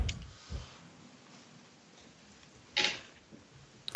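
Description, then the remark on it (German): A handful of scattered keyboard clicks over a quiet background hiss, irregularly spaced, with one sharp, louder keystroke near the end; no one speaks. “Man hört mich laut tippen, oder?”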